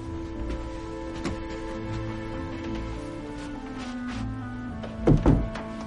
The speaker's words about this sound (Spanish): Stan entra cerrando la puerta.